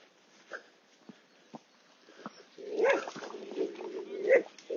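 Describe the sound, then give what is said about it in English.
A dog held back on a long yellow lead while trying to run after another animal lets out a few short, sharp yips, then breaks into a sustained, strained whining and whimpering that rises and falls in pitch for the last couple of seconds. “Wolfie's trying to run after it, but I've sensibly got her on the lead.”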